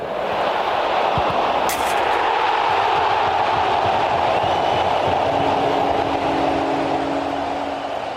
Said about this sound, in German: Also wir kennen schon, dass Werder viele Tore schießt und der kurze Jubel wird an diesem Abend auch schnell wieder leiser. Hört mal.